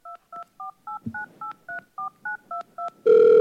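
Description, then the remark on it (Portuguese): A rapid series of about eleven two-tone keypad beeps dialed in steady rhythm, followed by a sustained louder tone as the call connects, with faint background rustling. “Ah lá, tá ligando pra quem? Pra quem que ele tá ligando? Hã? Tá chamando.”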